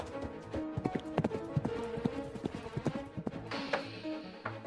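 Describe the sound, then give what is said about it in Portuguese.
A horse's hooves gallop in a quick, uneven clatter of sharp beats, fairly loud, heading toward a collapsed bridge, before the rhythm breaks off into a brief rushing burst as the horse leaps and falls. “O cavalo acaba de cair! Ele pulou e caiu!”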